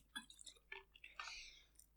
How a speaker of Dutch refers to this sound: En dat, sorry hoor, ik neem ondertussen even een slokje water.